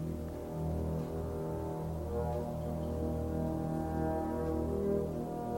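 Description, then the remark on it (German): A deep, sustained E-flat major chord in the double basses, with soft bassoons and horns swelling gently above it; steady and unbroken, with no voices. “Dann bald leise Fagotte, die Hörner.”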